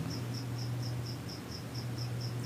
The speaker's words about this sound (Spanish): Se escuchan los grillos al fondo. ¿Cuáles grillos?